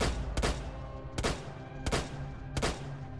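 Four sharp pistol shots ring out in quick, evenly spaced succession, each a loud, abrupt crack with a brief echoing tail over a low background rumble, fired by Marianne Bachmeier at Klaus, her daughter's accused killer. No one speaks.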